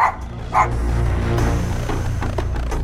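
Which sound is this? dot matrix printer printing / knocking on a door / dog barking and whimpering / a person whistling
dog barking and whimpering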